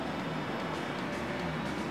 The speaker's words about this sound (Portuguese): Porra, precisa passar carro essa hora, meu amigo. Uma da manhã.